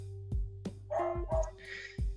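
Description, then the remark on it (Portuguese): A dog barks repeatedly in quick, uneven bursts, loud, with a few higher yelping notes mixed in and a steady low hum underneath. “Você pode mandar seu cachorro Curitiba... calar a boca aí agora que você falou do meu, agora eu quero que você mande o seu.”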